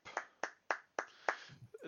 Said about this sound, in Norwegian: og dere merker det litt sånn mens dere har stått og prata her, så når eh, denne lille jenta har stoppet å spille, så har liksom rommet sånn eh, Nesten litt sånn eh, automatisk bare begynt å gi en høflig klapp